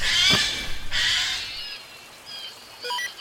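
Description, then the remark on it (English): A Steller's jay calls, two harsh, raspy screeches followed by thin whistled notes and a brief chirp, apparently mimicking another sound, with no talking. “Steller Jays are excellent mimics.”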